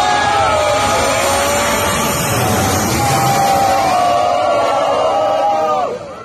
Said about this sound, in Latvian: Taivānas galvaspilsētas Taibējas iedzīvotāji vakar vakarā ar gavilēm sagaidīja lidmašīnu, kas salā nogādāja ASV kongresa pārstāvju palātas spīkeri Nensiju Pelosī.